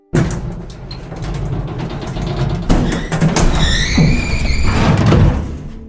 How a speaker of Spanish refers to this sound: agarró la palanca que estaba al lado de las escaleras automáticas y la pesada cortina de hierro se levantó, chirriando, hasta una altura de un metro.